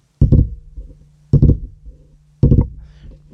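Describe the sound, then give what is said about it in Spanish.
Three short clusters of sharp taps, evenly spaced about a second apart, of long fingernails clicking against a wooden door in a house. Crisp over a faint low hum, with no voices. “Pero con uña larga. De esas que son uñas largas.”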